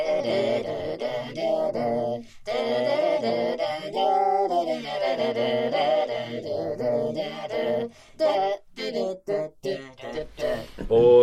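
A heavy metal song plays loudly and steadily, with sustained, ringing guitar tones and a singing voice drawn out in long wavering notes, breaking into choppier bursts near the end.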